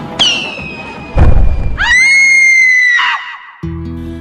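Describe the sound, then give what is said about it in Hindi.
During a wedding procession, a firework rocket whistles in a steady high tone, then strikes the window of a two-storey house with a loud, sharp thud. Right after, a woman's long, piercing scream rises and holds for about a second before breaking off. “पर एक रात की बात है जब संयोग से बारात उनकी ही गली से निकली बारात के आगे रॉकेट और लड़ियां छुड़ाए जा रहे थे कि तभी एक रॉकेट सामने कोठी के दुमंजिले की खिड़की से टकराया और एक चीख सुनाई थी”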